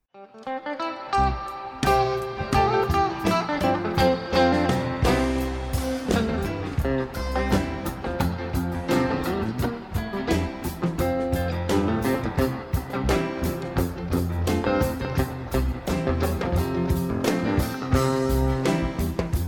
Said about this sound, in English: best of three series for the …'s prize pack. Let's play the first song.